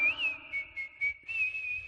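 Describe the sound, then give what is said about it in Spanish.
A person whistles a short melodic tune, the clear tone bending and sliding between notes with brief breathy pauses, no talking over it. “¿Te das cuenta como silbo?”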